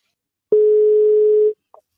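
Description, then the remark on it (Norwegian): A single steady telephone ringing tone sounds for about a second, clear and fairly loud, followed by a faint short click as a call placed from Statistics Norway (SSB) connects, with no voices. “Jeg ringer fra SSB.”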